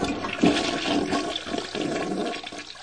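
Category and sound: household object, toilet flushing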